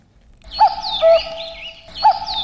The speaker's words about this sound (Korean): 아, 힘차게 오네요. 네, 뻐꾸기 소리. 2시가 됐다고. 뻐꾹.